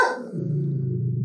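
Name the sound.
dog barking and growling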